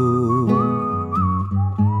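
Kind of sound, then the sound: human body sound, person whistling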